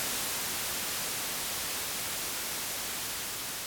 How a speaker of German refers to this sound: Und das ist ziemlich nah an diesem Sound. Weißes Rauschen. White Noise.